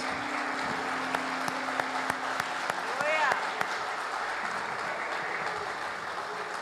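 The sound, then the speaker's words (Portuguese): An audience applauds the Lord steadily, a dense wash of many hands clapping at an even loudness throughout, with a few sharper individual claps and a brief high whistle-like tone midway. “O Senhor é merecedor de todas essas palmas.”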